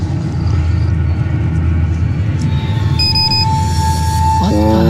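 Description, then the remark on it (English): A lightning detector goes off partway through, triggered when a battery is taken out of a circuit during an experiment, sounding a steady, high electronic tone over a constant low rumble, then breaking into a wavering, sliding warble near the end. “When we took the battery out of the circuit, the lightning detector would go off.”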